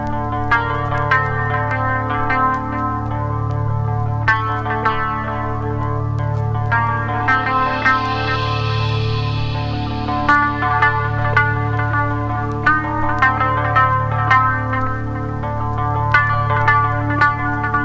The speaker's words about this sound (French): Musique électronique des plus hypnotiques. Alors on se jette tout de suite à pieds joints dans un univers musical fort déjanté.